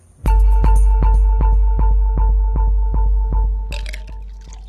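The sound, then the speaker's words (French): Whisky glugs steadily from a bottle into a glass, about a dozen even gurgles in a quick rhythm, ending with a brief bright splash as the pour finishes. “C'est justement pourquoi je vous ai servi un verre, pour vous donner du courage.”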